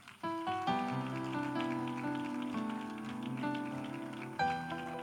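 A church audience applauds to welcome people who raised their hands and stood up, a dense, steady patter of clapping that blends with sustained keyboard chords playing underneath, lasting throughout without any talking.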